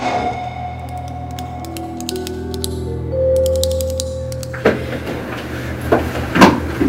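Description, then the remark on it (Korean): Quick bursts of sharp, dry clicks of a ballpoint pen being clicked repeatedly in a study reading room, over a low steady hum, followed by a few louder clattering knocks near the end. “저기요, 이거 볼펜이죠?”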